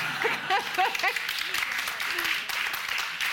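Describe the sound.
An audience applauds steadily throughout, a dense, crackling wash of clapping at even volume, with a few voices calling out and cheering over it near the start.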